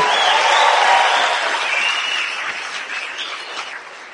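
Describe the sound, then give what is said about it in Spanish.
A large audience at an Amway event applauds to show pride in the company, with sustained, dense clapping and some cheering, loud at first and slowly tapering off over the few seconds. “Yo quiero que con un aplauso la gente que se siente orgullosa de Amway.”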